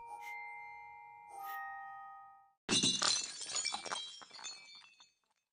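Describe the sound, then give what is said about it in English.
A glass snow globe falls off a shelf and shatters with a sudden loud crash, followed by a burst of tinkling, scattering shards that fade out. Before it, soft bell-like chime tones ring out. “He had rushed over as soon as he had heard the crash of the shattering glass, and now he watched the princess with concern.”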